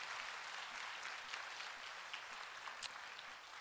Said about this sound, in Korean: 그러한 마음으로 우리 순장 순모님들께 다시 한번 뜨거운 박수 올려드리겠습니다.